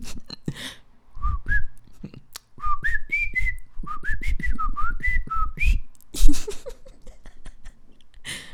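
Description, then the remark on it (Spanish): A person whistles a quick, chirpy little birdlike tune, short rising and falling notes in a playful run, with some breathy and mouth noises around it and a brief burst near the end, imitating the little bird sound that was heard when it was time to turn the page. “No manches, y cuando tenías que dar vuelta a la página, se escuchaba un pajarito que le hacía...”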